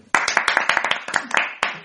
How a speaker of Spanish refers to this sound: O sea que desde aquí, un aplauso a Ashley